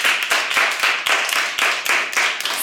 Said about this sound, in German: Und Sänger bekommen ja eigentlich Applaus, ne? dann den bekommt ihr jetzt und ihr dürft selber auch mitmachen und für euch selber mal klatschen.